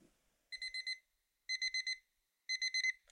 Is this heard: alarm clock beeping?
yes